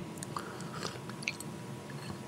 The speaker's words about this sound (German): ich esse gerade einen urguten Mondstrudel von meiner Mama.